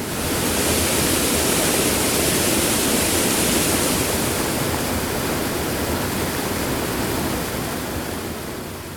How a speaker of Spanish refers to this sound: ¿O qué dices del sonido del agua, como el del mar? O el del agua cayendo por una roca en una gran cascada, diferente al del mar, ¿no?